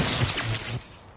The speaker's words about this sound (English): This is the sound of a flat screen television hurled off a building.